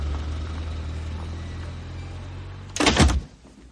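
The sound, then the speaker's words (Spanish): A car engine rumbles steadily, then a brief loud surge of noise near the end as the car pulls away, fading quickly afterward. No one speaks. “Desde la ventanilla del coche la niña le saca la lengua. El coche parte.”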